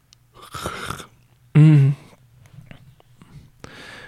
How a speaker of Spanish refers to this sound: ¿Cómo vas a empezar el podcast bostezando?